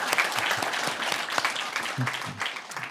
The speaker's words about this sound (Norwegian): Eh, har dere glemt å klappe? Nei.